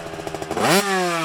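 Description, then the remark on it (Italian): A motorcycle engine chugs with quick rhythmic pulses, then revs sharply upward into a loud, sustained whine, with no one talking. “Ma perché la moto poi?”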